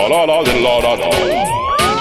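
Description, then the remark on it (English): A loud siren sound effect wails continuously, its pitch sweeping up and down in repeated glides over about two seconds, with bursts of noisy texture layered on top. “Bring that alarm, … here, Basement Sessions, and another show.”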